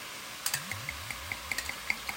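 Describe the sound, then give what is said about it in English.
Spanish rosé wine from Waitrose glugs from a screw-top bottle into a glass, a gurgling pour with a string of rising bubbly pulses and small clinks, no voices. “And you'll hear that not only am I pouring some of this into my glass here”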